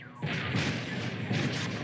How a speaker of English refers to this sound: Yeah, I shot it out of the sky and it crashed and there's a big old explosion.